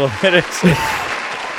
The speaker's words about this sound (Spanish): Así que vamos a darle un aplauso, Dale un aplauso.